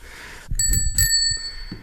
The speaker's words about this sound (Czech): Na stůl kladu jednak zvonek z cestovního kola